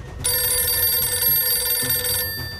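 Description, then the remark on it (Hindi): A telephone bell rings at the Burari police station in Delhi in one continuous, bright, metallic burst lasting about two seconds, loud, with a low background rumble underneath and no voices. “phone की यह घंटी दिल्ली के बुरारी थाने में बज रही है इसके पीछे एक भाई की रोती बिलखती आवाज है”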